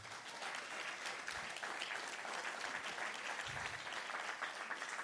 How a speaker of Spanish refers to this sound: Alguien le da un aplauso a la palabra del Señor.